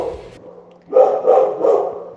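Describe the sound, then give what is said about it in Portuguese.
A small dog barks three times in quick succession, short yappy barks, fairly loud, with a quiet background hum and no talking. “Ai ai cachorrinho aí querendo falar um inglês também.”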